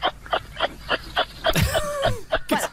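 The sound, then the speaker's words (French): A kangaroo call: a steady run of short, husky chuffing grunts, then a louder rasping, wavering cry midway, followed by a few more quick grunts. “Attention, mesdames et messieurs, voici le cri du kangourou.”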